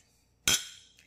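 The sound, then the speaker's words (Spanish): A single bright clink of glasses touching in a toast, sharp, with a high ringing tone that fades quickly. “Unas copas.”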